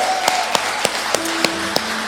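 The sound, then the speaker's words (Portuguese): An audience applauds in a dense, steady wash of clapping, with sharper accented claps landing in an even rhythm about three times a second over faint sustained musical tones. “Quem aplaudir, aplaude de Jesus de verdade.”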